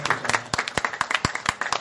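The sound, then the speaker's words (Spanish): An audience breaks into applause, a dense run of overlapping claps with a few sharper, louder hand claps standing out at an irregular rhythm for nearly two seconds. “y desde aquí les mandamos un fuerte abrazo, a, fuerte aplauso ustedes, hacia Febana para que se mejoren y gracias por vemos.”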